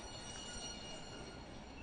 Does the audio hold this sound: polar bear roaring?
no